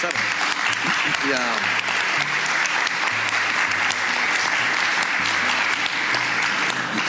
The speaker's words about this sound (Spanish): de un aplauso a Marlon Ochoa